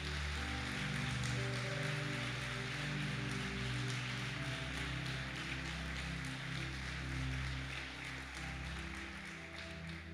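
A church audience applauds for Jesus in a dense, steady wash of clapping that holds fairly loud for the full ten seconds, with low sustained keyboard tones droning underneath.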